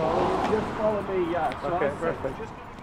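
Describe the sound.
A steady low engine and road rumble from inside a moving car, with a person talking over it throughout.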